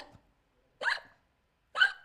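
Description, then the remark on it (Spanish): Two sharp hiccups spaced about a second apart, each a short voiced gulp with a clipped, squeaky edge, fairly loud with silence between them. “entonces el hipo es eso, ¿no? Cuando te entra aire en el, en el diafragma y el diafragma se espasma y produce este...”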